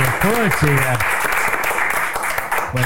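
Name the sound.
applause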